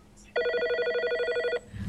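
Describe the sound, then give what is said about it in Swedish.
A telephone rings once for an incoming call with a loud, steady electronic trill lasting over a second, rapid pulsing tones, then cuts off abruptly into faint background noise. “Han ringer in och han kommer här.”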